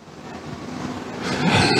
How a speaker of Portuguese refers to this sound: Hoje está passando moto virada no giraia, hein, Jesus? Não. Faz os motoqueiros passar pela outra rua.